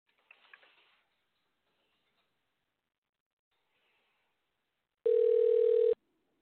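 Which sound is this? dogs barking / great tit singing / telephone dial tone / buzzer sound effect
telephone dial tone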